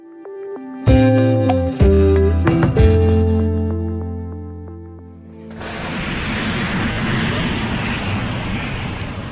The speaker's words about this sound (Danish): og så lytter du her også til lyden af Electron-raketten. Electron er fremstillet af den nyzelandske raketvirksomhed Rocket Lab